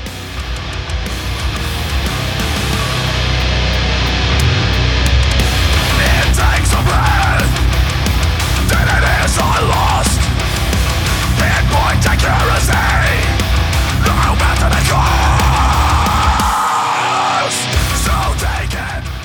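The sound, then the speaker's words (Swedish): A loud, dense stretch of groovy Norwegian-Swedish death metal from a band's first EP, with distorted guitars, pounding low end and growled vocals, playing continuously with a brief drop in the bass near the end. “Ska börja med att lyfta lite norsk-svensk skönt eh, svängig eh, döds.”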